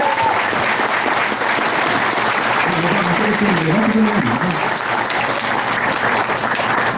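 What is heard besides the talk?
audience applause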